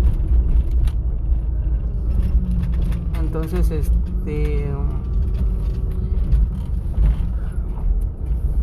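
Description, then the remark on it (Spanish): A car engine drones with a steady, low rumble as the car drives, continuous throughout, while a man speaks briefly over it in the middle. “Aguantenme tantito, porque vengo manejando y ahorita llego aquí a la, casa”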